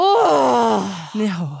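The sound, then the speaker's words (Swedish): A drawn-out, frustrated groan from one voice, loud, sliding down in pitch for about a second before a brief spoken remark follows. “Det är känslan av frustrationen”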